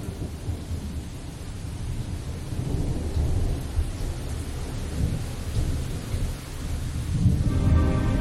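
Steady rain pours down onto a windshield while deep thunder rumbles and rolls continuously underneath, building to a louder peal near the end. No voices.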